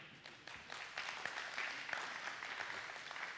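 An audience applauds, a steady wash of many hands clapping together at an even, fairly loud level for a few seconds, with no voices standing out above it.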